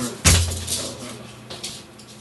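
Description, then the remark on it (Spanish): A female dog makes a sudden loud thump, like bumping against a door, followed by a few fainter knocks and shuffling. “Eso que se ha escuchado es mi perra, que está un poco loca a veces.”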